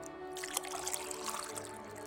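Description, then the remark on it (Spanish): Drinking water pours steadily from a jug for a couple of seconds, a continuous soft splashing trickle, fairly quiet, with no voices. “Pero, lo que seguramente nunca vamos a olvidar es la importancia de la jarra del buen beber.”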